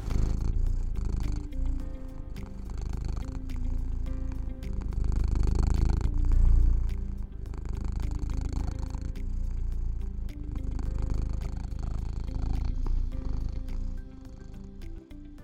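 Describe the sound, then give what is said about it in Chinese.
A cat purrs steadily for the whole stretch, a low continuous rumbling drone with a gentle rhythmic pulse, fairly loud, with no talking over it. “那一样，我们就是听完猫呼噜声之后呢，就进到我们今天的主题喽。”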